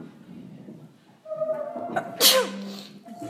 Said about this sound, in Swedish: Och jag måste nysa.